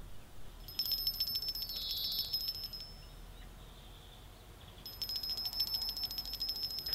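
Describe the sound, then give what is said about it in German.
An electric bell on a bell line running from the Lighthouse of Children's Rights to the kitchen rings on a Sunday morning in two bursts, a rapid high-pitched metallic trill lasting about two seconds, a pause, then ringing again for two more seconds; fairly loud with no talking. “Es ist Sonntagmorgen und Max und Rudi sind noch am Schlafen, als auf einmal die Klingelleitung, die vom Leuchtturm der Kinderrechte bis in die Küche geht, klingelt.”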